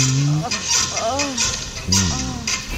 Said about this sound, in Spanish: Eso es el, ese es el sonido, parece más un, es un o sea, un colchón. Ese es el sonido de la suspensión trasera.